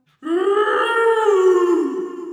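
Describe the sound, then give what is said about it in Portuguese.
A voice imitates a grumpy bear growling: one loud, sustained guttural growl lasting about two seconds, with nothing else around it. “Rosnou o urso rabugento.”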